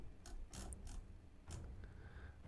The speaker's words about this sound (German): Dann gucken wir mal, was der Zauberer würfelt, ob der noch reagieren kann.